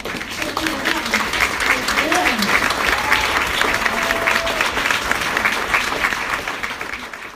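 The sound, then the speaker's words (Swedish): Sustained applause for an author from a small group fills the whole stretch, dense steady clapping with a few faint voices and cheers mixed in underneath. “En stor applåd till vår författare.”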